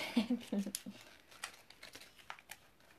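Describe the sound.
Dry crinkling and rustling of a crumpled paper note being handled and handed over, with scattered crackles over a few seconds and brief voiced sounds at the start.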